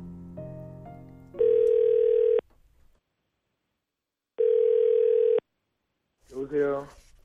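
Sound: telephone dial tone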